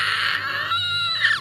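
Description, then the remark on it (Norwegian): A voice imitates the shrill, wavering scream of trees being scorched, a brief strained wail of about a second and a half that rises again at the end, fairly loud. “Idet noen tre stemmer blir svidd.”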